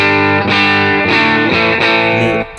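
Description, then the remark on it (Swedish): An electric guitar plays through the clean sound of the Dreamen, with a handful of loud, sustained chords struck every half second or so, each ringing into the next, with no voices. “Eh, vi ska kolla rena ljudet på Dreamen igen.”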